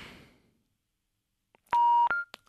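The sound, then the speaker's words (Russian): A decaying noise fades out, then after a pause come loud electronic telephone line tones as a caller's call to a studio phone line drops: a sustained steady tone, a short higher beep, and a brief click. “Сорвался звонок.”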